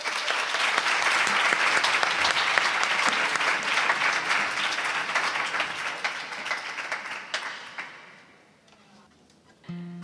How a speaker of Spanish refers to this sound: Un aplauso para ella, por favor.